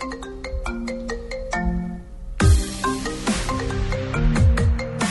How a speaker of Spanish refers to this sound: Escuchen este audio. Hay un celular.